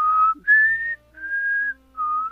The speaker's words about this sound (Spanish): Puedes empezar así, güey, con el, con el silbido, con el eh, silbido